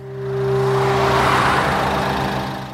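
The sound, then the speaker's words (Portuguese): A 2001 Mitsubishi Challenger driving on the Buntine Highway, largely a desert track: the engine hums steadily, swelling into a broad whooshing drive-by with tyre and wind noise, then easing slightly as it continues. No voices are heard. “Dirigindo um Mitsubishi Challenger de 2001, ele pegou a Buntine Highway, que em grande parte da sua jornada foi numa trilha deserta.”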